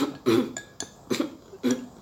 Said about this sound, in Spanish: Cuando tú aguantas las ganas de toser, pasa eso. Se empeora. te ahogas, se te queda el tosido como ahí y entonces quieres salir más y más y más y todo se acumula